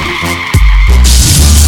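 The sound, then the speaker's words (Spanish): Car tires screech loudly in a sustained, high-pitched skid, followed by a heavy low thud and a sudden burst of harsh noise like a crash, all intense with no voices. “Montarte en tu carro y ir a las 200 millas hasta que choque.”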